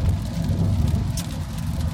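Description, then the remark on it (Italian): A steady, dense wash of heavy rain pours down without pause as it starts raining hard again, with a deep low rumble underneath and a few brighter splashes, fairly loud, with no voices. “Niente, qua è ritornato, sta ritornando a piovere di brutto, comunque bene così.”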